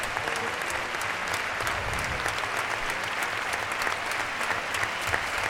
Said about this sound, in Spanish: Y es Morante que recibe esta ovación ha cortado una oreja, pero yo estoy convencido que de meter la espada en el primer envite le hubieran pedido el rabo.